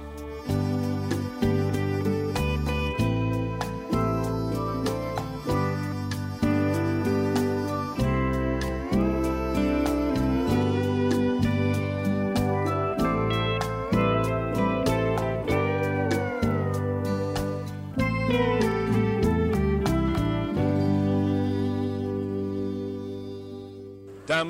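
A full, steady song plays on radio station WBWC 88.3, with a firm bass line, layered instruments and a gliding melodic lead, loud and continuous with no one talking over it.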